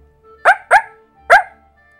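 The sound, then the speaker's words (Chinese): A person imitates a barking watchdog, as Pinocchio shouting to sound like a guard dog, giving three loud, sharp woofs: two in quick succession, then a short pause before a third, with no other talking. “接着，他就大声叫了起来。尽量使自己的声音叫得像只看门狗。”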